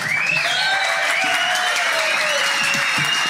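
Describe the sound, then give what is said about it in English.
An audience breaks into steady, sustained applause for a panel, a dense wash of clapping hands that stays loud and even throughout, with faint tonal whistles or cheers riding above it. “Hey, what about a round of applause for our panel, first of all?”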